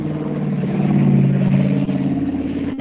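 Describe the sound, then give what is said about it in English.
A delivery vehicle engine rumbles steadily outside, a low harmonic drone that swells slightly as it revs, continuous for a few seconds with no voices. “Sounds like you're having a delivery.”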